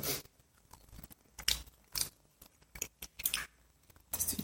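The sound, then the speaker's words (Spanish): Someone chewing crunchy food, with a series of sharp, irregular crunches and bites separated by brief pauses, fairly quiet with no talking. “Y pues ahorita vamos a, comer. Tenemos hambre.”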